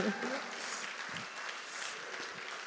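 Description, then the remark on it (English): An audience cheers and applauds for God, a steady dense wash of clapping with scattered shouts and whoops layered over it, holding a fairly even loudness throughout. “It's just, can we cheer God just for the gift that He has?”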